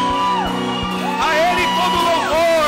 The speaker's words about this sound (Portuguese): Dá um grito de adoração ao Senhor, querido. Aleluia! Grita ao Senhor. Aleluia! Oh! A Ele a honra, a Ele a glória. Grita, dá um grito de adoração ao Senhor